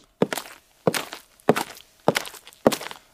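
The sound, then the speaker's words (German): Five footsteps in a grandmother's high-heeled pumps, walking angrily through spilled yogurt at a slow, steady pace, each landing with a wet, sticky squelch and a brief smeary tail. The walker briefly steps out of the yogurt, turns and walks back. No talking. “Ich bin mit den Stöckelnschuhen ja. meiner Oma wütend durch Joghurt gelaufen.”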